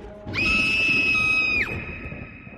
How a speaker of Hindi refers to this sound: उसी वक्त वहां पर जोर से चिल्लाने की आवाजें गूंजने लगी जिसे देखकर दिव्या डर कर चीख उठी